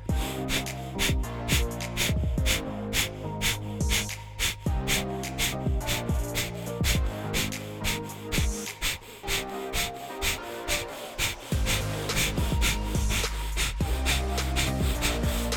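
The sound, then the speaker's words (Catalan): Rapid, forceful breaths of a breath of fire breathing exercise pulse in a steady, quick rhythm, sharp rasping exhalations repeating continuously, with background music underneath and no talking. “Ei, i si encara estàs aquí, un mini exercici de respiració. Farem un breath of fire.”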